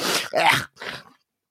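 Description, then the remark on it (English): A voice imitates a character coughing up a loogie and spitting it overboard: a harsh, raspy throat-clearing rattle followed by a short, breathy spit burst, about a second and a half in all, fairly loud and alone. “And she coughs up a loogie and spits it off overboard.”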